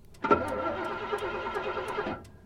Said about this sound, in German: Verdammt! Warum genau jetzt? Er versucht, das Auto neu zu starten.